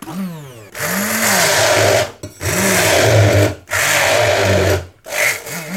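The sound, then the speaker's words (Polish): A kitchen blender grinds rice in several loud pulses, the motor whining up and cutting out briefly between bursts, with a gritty, rattling roar and no talking. “teraz będziemy blendować ryż”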